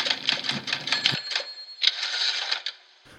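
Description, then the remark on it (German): A short listener-mail jingle built from rapid typewriter key clicks and bright bell-like tones, a busy clattering burst that pauses briefly, resumes, then stops with a final ding-like ring. “Das war unser fantastisches Hörerpost-Jingle.”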